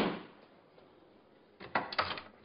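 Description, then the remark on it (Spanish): A large wooden door to a hotel's presidential suite opens: after a soft rush of noise and a quiet pause, a cluster of loud, clunky thuds and rattles arrives near the end, with no voices. “Se detiene frente a una gran puerta de madera.”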